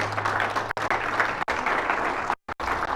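An audience claps hands together to the Lord in praise, in a dense, sustained, loud burst of applause, with brief gaps where the clapping drops out before resuming.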